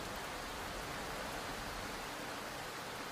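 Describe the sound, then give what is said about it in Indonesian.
A steady, soft hiss of rain falling outside a house, even and continuous throughout with no distinct drops standing out, heard alone at a low level. “Hujan di luar ngebuat ruangan ini jadi agak lebih gelap”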